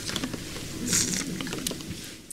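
A single quick sip of water, a soft wet slurp and swallow peaking midway, with faint rustling around it and no talking.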